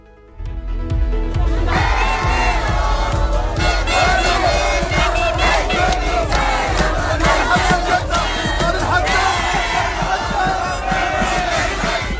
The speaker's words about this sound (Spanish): Y es el sonido, sin duda, de las últimas horas porque miles de marroquíes que viven en Andalucía han celebrado así el pase a semifinal de su selección en el Mundial de Qatar en las calles de Almería, Huelva, Córdoba, Málaga o Algeciras.